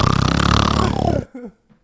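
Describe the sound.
A person imitates another person's loud snore: a single long, rough, rattling inhale lasting about a second, then a short breathy trailing sound and quiet.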